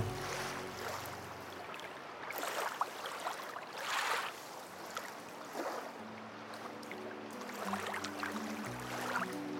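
A small boat arrives through water with steady splashing and lapping waves, a low motor-like hum running underneath, gentle swells of surf rising and falling throughout.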